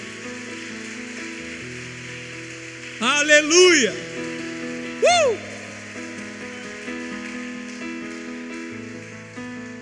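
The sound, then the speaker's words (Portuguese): An audience claps in a steady, dense patter through the whole stretch, giving a round of applause for the Holy Spirit, while sustained keyboard chords play underneath, and a voice briefly shouts out twice partway through. “Você pode dar um aplauso aí, uma salva de palmas para o Espírito Santo.”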